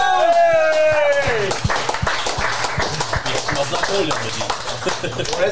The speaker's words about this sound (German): 290 Jahre Gastroerfahrung sitzen hier am Tisch. Applaus! Applaus!